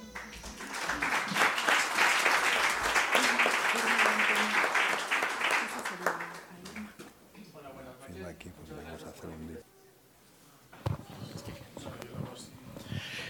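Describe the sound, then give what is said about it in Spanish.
An audience breaks into loud, sustained applause for a poet who painted the cover picture and is about to read his poems, a dense patter of many hands lasting several seconds before it thins out and a voice begins speaking. “Y pido un fuerte aplauso para él.”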